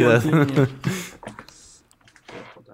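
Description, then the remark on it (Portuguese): A voice sounds briefly at the start, then fades into scattered, uneven clicks of typing on a computer keyboard, fairly quiet, with short pauses between keystrokes. “para não teres que apagar e para não sei o quê, para não estarmos a fazer barulho com, com teclados.”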